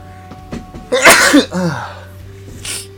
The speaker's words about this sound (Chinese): 按理说我要把那个打喷嚏的那段剪掉，但是为了嗯保持最原本的东西，我就不剪了。